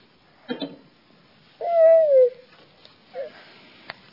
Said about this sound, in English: One beautiful bird.